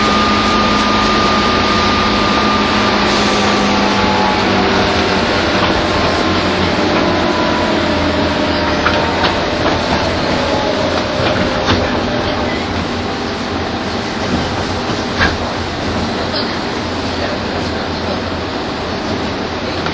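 A 201 series electric train on the Chuo Rapid service from Tokyo to Takao runs steadily toward Tachikawa, its motor whine and low rumble constant, with faint tonal hums shifting in pitch and occasional clicks from the rails. No one speaks.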